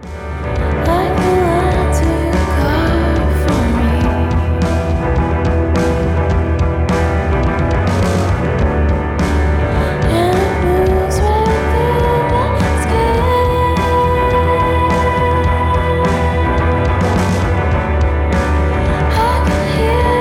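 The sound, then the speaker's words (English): A gentle, low-key alternative rock album track plays steadily throughout, with warm sustained guitar tones over a soft, even beat and no talking, at a consistent moderate loudness. “There's some low key, really gentle rock sounds, like in this track”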